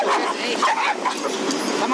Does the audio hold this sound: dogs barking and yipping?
yes